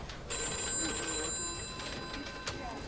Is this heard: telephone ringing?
yes